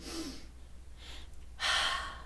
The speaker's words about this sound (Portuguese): Então, o acesso ao pulmão e prega vocal, ele é ligado. Por isso que quando você respira,